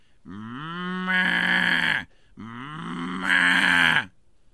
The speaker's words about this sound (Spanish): ¿Cómo van a hacer ruido, rancheros chidos? Pues yo pensé que eran vacas, pues,